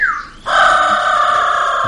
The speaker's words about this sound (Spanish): La próxima vez que me llame y yo no tengo una cuña de un loro, no me llame porque no puede ser que el mono tenga cuña. Ahí está, ahí está. No, no, no, ese es el loro.